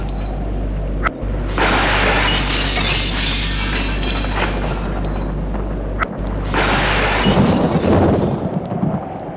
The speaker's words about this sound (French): La pluie entre, les éclairs éclairent l'intérieur. L'air tonne, les éclairs illuminent.